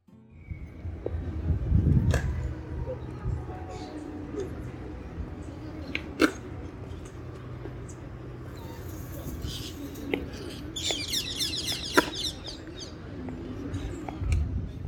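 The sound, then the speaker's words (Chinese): Piazza Vittorio Emanuele II, a park square in southeast Rome, Italy, with a steady low hum of murmuring voices and traffic, birds chirping and cooing here and there, and a few sharp clacks and taps cutting through the ambience. “刚刚给大家听到的一段录音呢，是我在罗马。呃，东南区的一个广场，它其实是一个公园啦。”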